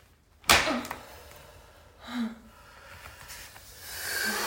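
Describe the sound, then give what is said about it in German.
A whip lands on a person's bare back with one sharp, loud crack, followed by a couple of softer swishing strikes a second or so apart, with faint breathing in between and no talking. “Die Schläge kommen schneller und härter und mein Rücken erinnert, wo mich die Peitsche schon zuvor getroffen hat.”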